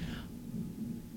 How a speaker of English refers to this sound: It's thunder. It's thunder, man. So I told you, it's always raining here. So that's the thunder outside.